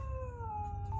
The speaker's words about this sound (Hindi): तभी अचानक से उन्हें एक कुत्ते के रोने की आवाज सुनाई दी